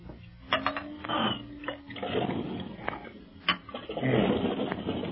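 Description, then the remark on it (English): Water pours and splashes in a few noisy gurgling bursts over about five seconds, used to revive a man knocked out with a gun butt, with a couple of sharp clicks and a thin rising tone early on, moderately loud. “Oh, where's some water? Oh, here's some.”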